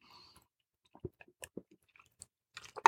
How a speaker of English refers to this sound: Excuse me, I pause and take a sip here of coffee.